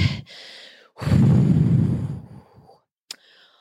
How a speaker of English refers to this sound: Okay, I steady my breathing. In, out.